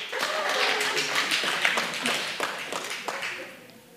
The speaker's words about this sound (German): Wer von euch ist Single? Einmal klatschen.